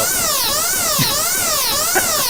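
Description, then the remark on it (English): A loud, continuous warning siren with harmonic tones sweeping up and down in a steady rise-and-fall cycle about every half second: a video game alarm that plays before each boss battle. “that's what plays before each boss battle”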